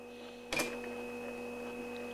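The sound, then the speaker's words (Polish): A steady mechanical hum from a tape recorder's mechanism, with a low drone and a faint high whine, runs throughout, briefly broken by a sharp click-like burst near the start; fairly quiet and constant, with no talking. “No oczywiście warczy, bo, no bo szum mechanizmu, wiadomo.”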